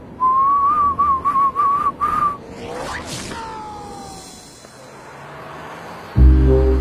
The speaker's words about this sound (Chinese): 冬天我爱吹着口哨滑雪。